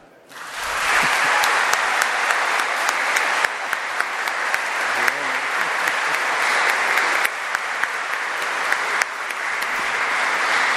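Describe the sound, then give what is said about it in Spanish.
An audience breaks into sustained applause for the priests who spent many hours hearing confessions, a dense, steady wash of many hands clapping that starts abruptly and holds at a loud, even level for about ten seconds, with no talking over it. “El último aplauso.”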